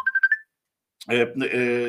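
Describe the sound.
A phone rings for an incoming call from a doctor, with a quick run of four bright electronic beeps rising slightly in pitch, followed by a short pause before someone starts talking.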